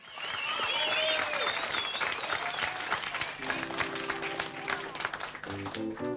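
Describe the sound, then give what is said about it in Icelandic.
A large audience of students from Laugalækjaskóli school claps steadily and densely at the start of a song, with scattered cheers and whistles; toward the end, sustained musical notes begin to sound under the applause. “Í salnum voru nemyndur úr laugalækjaskóla og það er þeir sem klappa í upphæðulagsins.”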